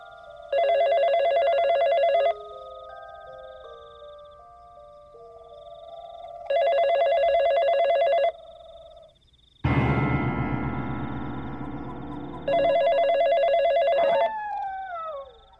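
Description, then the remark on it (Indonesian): A telephone rings during an outgoing call to a friend: three loud, steady ringing bursts about two seconds each, separated by pauses, with a rush of line static partway through and no voices. “Ya udah kalau ya udah telepon lah cepat okay, lah.”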